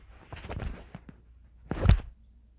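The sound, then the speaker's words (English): A beer can being cracked open: some quiet handling clatter, then one loud, sharp pop with a short hiss, and no voices. “Let me pop open my beer.”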